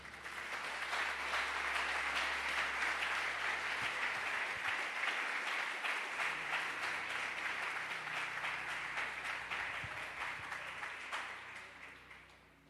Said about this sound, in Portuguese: Aplauda o Senhor.